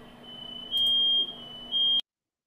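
A smoke alarm sounds a shrill, high-pitched tone that swells into two louder blaring bursts before cutting off abruptly. No one speaks, and it is loud.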